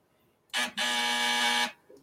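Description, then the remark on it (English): A harsh, loud game-show style buzzer sounds in two bursts, a brief blip followed by a longer steady drone of about a second, flat in pitch and rich in raspy overtones. “Yeah, buzzing them out, I guess.”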